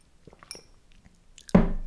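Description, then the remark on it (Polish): Quiet wet mouth sounds of someone sipping and swallowing water, with a few soft clicks, then a sudden louder, sharper sound near the end. No speech. “Ja sobie tutaj łyknę wody w międzyczasie.”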